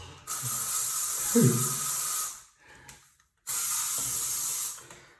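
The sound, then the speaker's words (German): Two long, loud bursts of aerosol spray hiss, separated by a brief pause, as someone sprays on scent to smell good, with a faint voice murmuring briefly during the first burst. “natürlich noch ein bisschen sprühen. Schließlich wollen wir ja gut riechen.”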